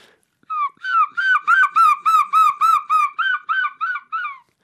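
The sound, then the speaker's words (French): A human voice imitates a seagull, as heard from the gulls of the Picardy coast, letting out a rapid series of about a dozen loud, shrill yelping cries that swell then taper off, with nothing else around. “Depuis m'imite en train d'imiter le goéland.”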